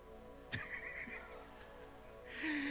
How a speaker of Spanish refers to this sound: Mire, un día de eso grabé un ronquido de un, de un pastor amigo.